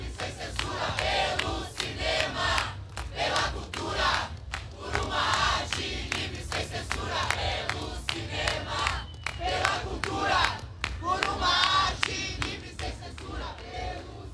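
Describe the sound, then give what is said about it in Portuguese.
A large crowd of protesting artists in front of the Palácio dos Festivais chants loudly in unison, rhythmic shouted phrases repeating steadily over a constant roar of voices for the whole stretch. “Nesse momento, os artistas estão em frente ao Palácio dos Festivais.”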